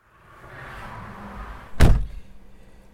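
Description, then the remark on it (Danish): A single solid car door slam as two riders get into a car early on a Saturday morning, landing as a short heavy thud over a low rumbling background of idling engine and outdoor ambience, with a brief ringing decay afterward. “Og øh, det var som sagt øh, to glade, forventningsfulde rytter, der hoppede ind i en bil øh, tidlig øh, lørdag morgen.”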